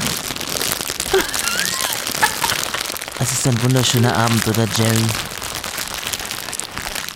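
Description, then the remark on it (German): A steady crackling fireplace fire, played from a streaming playlist, pops and snaps continuously across the whole clip, even in level, while a man speaks briefly over it partway through. “powered by the Spotify playlist Province High Needs. Nein, die heißt Kaminfeuer.”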